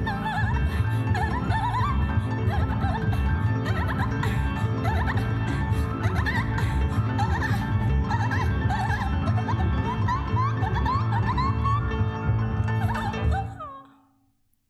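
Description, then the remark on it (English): A singer's voice makes high, squeaky, dolphin-like chirps and sliding whistles over a full, steady band arrangement, continuing throughout before the music cuts off abruptly near the end. “Like the end of that song where she's going like dolphin sounds and stuff.”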